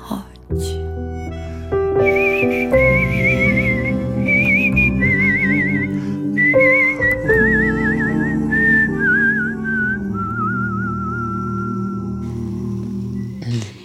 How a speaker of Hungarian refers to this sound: mellettem végig énekelt, és végig fütyülte a dalt.